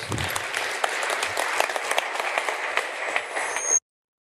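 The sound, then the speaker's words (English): A crowd applauds steadily, many hands clapping in a dense, continuous wash of sound that holds at an even level for a few seconds before cutting off abruptly. “Give him a round of applause, please, folks.”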